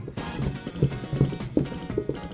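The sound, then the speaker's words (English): Hollow coconut-shell clopping in a steady trot-like rhythm, several evenly spaced knocks imitating horse hooves, moderately loud over a faint tonal background. “You hear some coconuts. You hear some ho- horse hooves”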